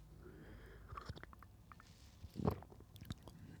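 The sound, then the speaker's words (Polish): Someone quietly sips hot tea: faint lip and mouth clicks, then one brief soft slurp and swallow, with no talking. “wezmę sobie łyk herbaty.”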